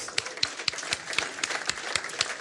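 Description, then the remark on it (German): Steady applause from a small group, with sharp claps landing in a quick, fairly even rhythm over a soft bed of scattered clapping. No voices are heard. “Einmal Applaus.”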